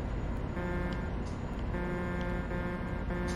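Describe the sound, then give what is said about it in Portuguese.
A truck horn honks in about four blasts, the first longer and the rest shorter, its steady tone riding over a constant loud rumble of engine and road noise. “Ó, tô buzinando que a gente tá só a 66 quilômetros.”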